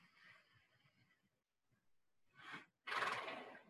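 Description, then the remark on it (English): A horse breathes in quick, shallow huffs, then pauses before drawing two loud, deep breaths, the last a long, forceful exhale. “You'll hear him just breathing shallow, and then you'll hear a.”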